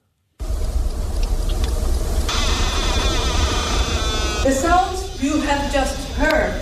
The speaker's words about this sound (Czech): Zvuk, který jste právě slyšeli, vydává ledovec Adamel, což je největší ledovec v Itálii. A rychle taje